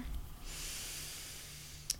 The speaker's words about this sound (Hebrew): עוד נשימה.